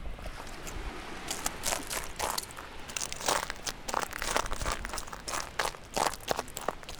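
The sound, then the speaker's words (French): Footsteps crunching over crisp, brittle ground, a steady walking rhythm of crackly, crinkling steps, with no talking. “Mais pour l'instant, c'est juste on cherche les spots qui croustillent.”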